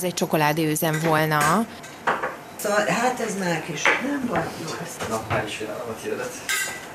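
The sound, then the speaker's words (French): Kitchen clatter of a baking tin and metal trays being handled as a woman takes a strawberry cake, made with strawberries from her garden, out of her oven, with clinks scattered throughout while people talk and a voice hums over it. “sort de son four un gâteau aux fraises de son jardin.”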